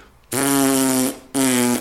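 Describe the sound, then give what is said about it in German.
Two loud lip buzzes like a brass player's embouchure buzz, a steady, raspy, fart-like drone with the vibrating area in the middle of the lips; the first lasts nearly a second, then a brief pause and a shorter second buzz. “Wenn, die, wenn, die, wenn der Buzzing-Sound so klingt,”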